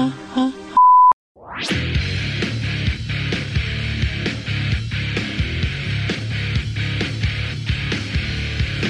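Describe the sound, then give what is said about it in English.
A single short, steady mid-pitched answering machine beep sounds after a brief muffled bit, then a rising sweep leads straight into loud, driving music. “I'm not home right now, but if you want to leave a message, just start talking at the sound of the tone.”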